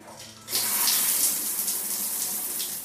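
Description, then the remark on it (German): Shower water suddenly starts running after a brief quiet moment, then keeps up a steady, fairly loud hissing spray without any voices. “Diese Was jetzt Folge würde es wahrscheinlich ohne morgendliche Dusche nicht geben.”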